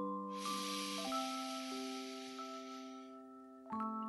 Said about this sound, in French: Allez, on recommence. On va inspirer à 3 par le nez, ensuite on bloque la respiration et on souffle par la bouche. 1, 2, 3.